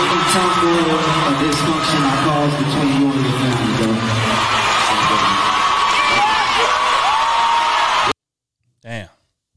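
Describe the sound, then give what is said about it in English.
A loud crowd at a live show, recorded by someone in the audience, cheers and shouts continuously for about eight seconds, a dense roar with overlapping voices and whoops, then cuts off abruptly to silence before a brief single voice. “Again, that's somebody recording from the crowd.”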